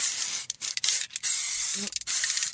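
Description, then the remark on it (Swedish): Four quick spritzes from a perfume bottle, each a bright, breathy hiss lasting about half a second, separated by brief pauses, with no talking over them. “Spruta lite på mig också.”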